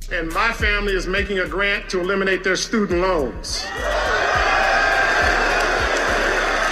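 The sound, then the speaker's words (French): A large crowd at a university graduation ceremony chants "MVP" in a rhythmic two-beat cheer several times, then bursts into loud, sustained cheering and excited shouts of joy and surprise that fill the space, after an announcement that the graduates' student debt will be paid off. “Donc la foule a repris MVP, MVP, des cris de joie et des cris de surprise.”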